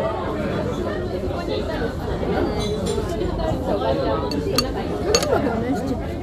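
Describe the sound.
A busy izakaya restaurant din at Tsukada Nojo of many overlapping voices, with sharp clinks of glasses and dishes cutting through now and then, steady throughout; people are drinking and eating gyoza.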